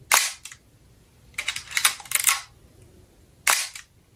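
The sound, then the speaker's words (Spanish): Crisp mechanical clicks of the shutter of an old Nikon F2 film camera, sharp, firing in a few separate bursts with short pauses between, the middle burst a quick cluster of clicks and winds. “Así suena el obturador de una vieja Nikon F2, el artilugio con el que comenzó la historia que hoy vamos a contarte.”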